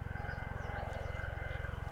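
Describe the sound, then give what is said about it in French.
A military helicopter from the Étain-Rouvre base drones overhead while doing manoeuvres above a valley, its rotor producing a fast, steady low thudding pulse beneath a constant engine whine, moderately loud and sustained throughout. “Tiens, en ah parlant d'oiseaux, un gros, c'est les hélicoptères de la base de euh, Étain-Rouvre qui viennent faire des manœuvres au-dessus de la vallée.”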